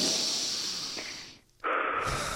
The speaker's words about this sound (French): respirez encore un petit peu, trois fois, on va le faire trois fois